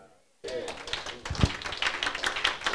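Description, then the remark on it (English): After a brief hush, an audience breaks into loud, dense clapping for Jesus: many hands striking at once in a steady wash of applause, with some voices mixed in. “Clap for Jesus.”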